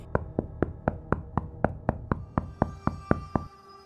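A quick, steady run of about fourteen sharp knocks on a wall, fairly loud and evenly paced, ending with a faint lingering ring once the knocking stops.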